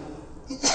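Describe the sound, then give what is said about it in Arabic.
A single sudden sneeze bursts out at the end, a short sharp hiss-like blast that is louder than the quiet murmur of background voices before it. “يرحمك الله”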